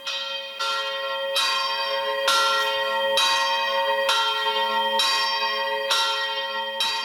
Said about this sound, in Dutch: Hij wordt ook wel de Torre della Vacca genoemd, de toren van de koe, omdat het geluid van de klok volgens de inwoners van Floros aan het geluid van een koeienbel doet denken.